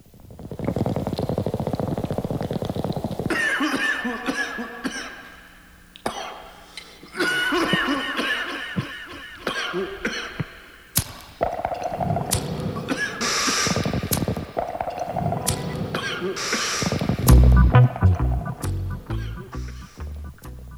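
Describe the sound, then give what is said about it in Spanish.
A dub reggae cover's intro: a collage of clattering, coughing and gurgling sound effects, then deep, evenly spaced bass thumps start a slow groove near the end. “Pues bueno, ahí está un intro de un cover que hace un una legendaria banda”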